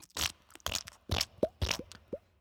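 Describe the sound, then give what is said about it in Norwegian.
A voice imitates squelchy, wet footsteps of bare skin: five or so moist, crunchy bursts in an uneven rhythm, several ending in a short rising squeak, moderately loud with no talking. “Hvis jeg hadde hatt en god GM-dag, så hadde jeg kanskje sagt Dere hører en sånn, sånn litt sånn ekkel lyd av eh, noe skinn som treffer bakken med sånn bløte trinn.”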